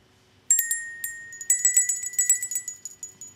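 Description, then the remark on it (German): A small table bell is shaken in a quick, irregular flurry of bright, high-pitched tinkles that overlap and shimmer, with no one talking. “Tischglocke nennt man die, glaube ich, ne?”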